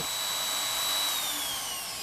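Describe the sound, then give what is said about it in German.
A hand blender purees mussels into a mass for testing at an institute of toxicology and pharmacology. It whirs steadily, a high motor whine with a thin tone that drifts slightly lower as it runs, loud and continuous with no one speaking. “Mit einem Pürierstab werden die Muscheln zerkleinert und anschließend aufwendig gereinigt.”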